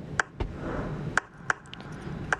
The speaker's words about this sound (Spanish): Bueno, este es el sonido original que grabé de la manzana que les contaba y suena así en realidad.